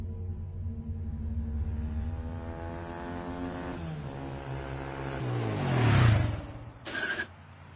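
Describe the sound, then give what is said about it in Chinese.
A motorcycle engine drones steadily, then its pitch falls as the bike slows and stops outside a condiment shop called Baixiangyuan, swelling into a louder rumble before cutting off. A brief hiss follows at the end. No one speaks. “小鱼停下了摩托车，兴冲冲的跑进了这家名叫“百香园”的调味品店。”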